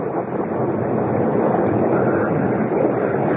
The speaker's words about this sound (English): Well, well, it's crazy to stay out in a storm like this.